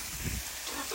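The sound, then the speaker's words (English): A steady, forceful hiss of a high-pressure hose spraying water to wash bikes at a gas station fills the second, with a brief low rumble near the start and no voices. “like the car wash we see in North America, but there's a hose with so much pressure we could turn off a fire.”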